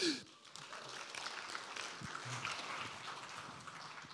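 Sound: applause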